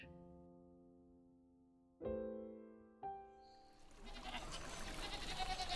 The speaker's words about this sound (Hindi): मैं मैं करती करीब सौ बकरियों का झुंड बर्फ से ढके पहाड़ों के बीच हरी मखमली घास में चल रहा है